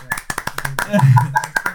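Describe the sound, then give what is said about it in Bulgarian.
Brisk, evenly spaced handclaps of applause welcoming a guest, sharp and fairly loud, running throughout the short moment, with a voice briefly speaking over them midway. “Да Аплодисменти!”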